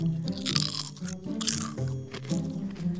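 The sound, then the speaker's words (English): Loud crunching of grasshopper chips, bursting in a few uneven bites over about three seconds, with a steady low musical hum underneath and no talking. “There was another time when Zia the zebra had got a big bag of crunchy grasshopper chips.”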